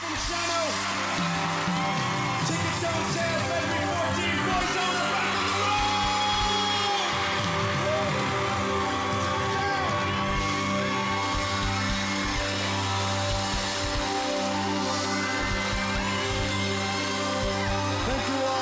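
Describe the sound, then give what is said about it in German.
A large arena crowd at a live concert in the U2 Arena in London cheers and yells over loud live music, a steady, dense roar that carries on through the whole stretch without a break. “Wir hören ihn jetzt live aus der U2 Arena in London.”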